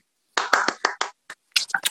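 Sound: people applauding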